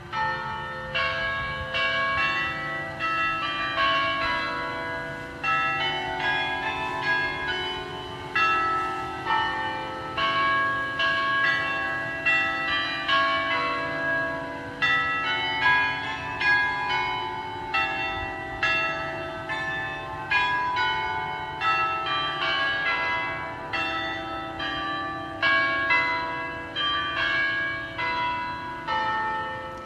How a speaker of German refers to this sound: Wer möchte, kann ja gerne mal auf YouTube gucken, Ägidienkirche Hannover, da ist das sehr schön zu finden. Wir hören uns das Glockenspiel der Ägidienkirche an.